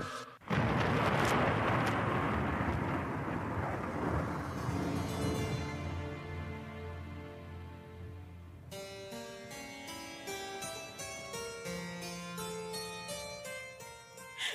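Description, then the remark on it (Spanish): A loud thunderclap from a lightning strike on a dark night bursts at the start and rolls into a long, fading rumble, then dramatic music swells in and carries on alone. “Era una noche oscura y un grito de angustia se confundió con el trueno de un rayo.”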